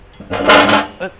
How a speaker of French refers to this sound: c'est une chaise métallique euh, juste devant la porte.